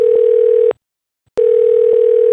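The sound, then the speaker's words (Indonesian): A telephone ringing tone heard while waiting for the call to be answered: two steady, buzzy electronic bursts separated by a brief silence, loud, with no voices. “Angkat dong, podcast naik kelas nih.”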